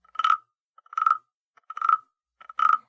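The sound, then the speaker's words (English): A wood frog gives four short, raspy clucking calls, evenly spaced less than a second apart, clear with no voices or other sounds around them. “Uh, it's it's a wooden frog, that's for sure.”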